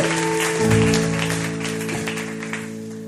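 An audience applauds with steady, dense clapping that holds for about three seconds, while sustained low keyboard chords ring underneath. No one speaks.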